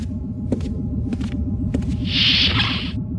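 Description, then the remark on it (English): A tuning fork, waved over a roast pheasant, hums in a steady, low droning tone throughout, with a few soft clicks and a brighter shimmering ring swelling briefly near the end. “Why are you waving a tuning fork over that roast pheasant?”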